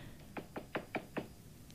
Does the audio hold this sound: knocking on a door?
yes